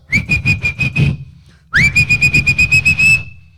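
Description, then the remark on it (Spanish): Two long, loud whistles, each a steady high pitch with a fluttering, pulsing quality, separated by a brief pause, with low background rumble underneath; a whistle to call the ravens. “… a lo mejor da una silbada.”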